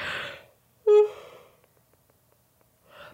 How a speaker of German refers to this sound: Da kam gerade ein Gähner dazwischen.